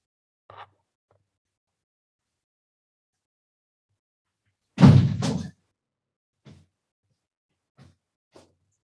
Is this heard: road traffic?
no